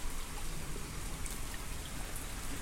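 Steady rain pattering outdoors on a rainy day, a dense continuous hiss of drops striking surfaces, with no voices and no pauses across the short stretch.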